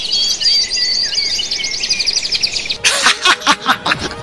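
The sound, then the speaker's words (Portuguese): An Australian bird mimics a dial-up modem: rapid, high electronic warbling tones give way to harsh, pulsing bursts of static-like screeching, loud, with no talking. “É um pássaro australiano que imita tudo e reza a lenda que ele imita o som do modem”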